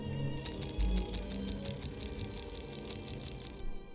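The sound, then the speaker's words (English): A rapid, rhythmic series of dry scraping and crunching bursts repeats for about three seconds over a low rumble, like something clawing or crawling across a gritty surface. No voices are present. “Beware the sickening crawling sound when you walk home alone at night.”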